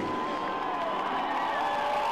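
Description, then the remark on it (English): A large crowd at Indianapolis roars and cheers as Jeff Gordon drives past on his final lap, in a steady, dense wash of sound, with scattered whoops rising above the sustained noise throughout. “And listen to the crowd as they acknowledge Jeff Gordon when he goes by.”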